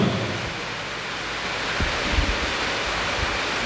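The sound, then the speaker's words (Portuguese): A steady, dense hiss of falling rain fills the whole clip, loud and even, with a few soft low thumps mixed in and no voices. “Olha a chuva aí.”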